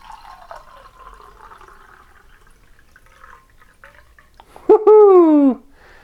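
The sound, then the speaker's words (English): Ten ounces of water pour steadily into a Pyrex cup with a soft, continuous splashing hiss, then a brief loud, falling tonal squeal cuts in near the end before stopping. “I've never actually poured this in, so we'll see exactly how much water fits in here.”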